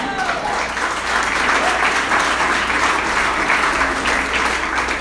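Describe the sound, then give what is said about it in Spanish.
An audience applauds steadily for several seconds, a dense, crackling wash of many hands clapping at an even loudness throughout, with no single voice standing out. “No me convences el aplauso, pero bien, no importa.”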